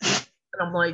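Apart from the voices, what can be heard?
sneeze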